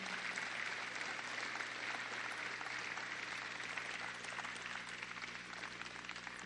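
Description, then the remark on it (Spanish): An audience breaks into sustained applause, a dense, steady wash of many hands clapping at even strength for several seconds, with no voices rising above it. “¿Por qué no le doy un aplauso?”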